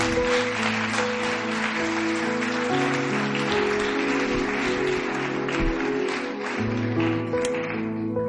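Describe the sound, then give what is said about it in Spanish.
A large audience claps steadily and loudly for God for several seconds, the dense applause rolling on while sustained keyboard chords play underneath. “Dar un aplauso fuerte a Dios.”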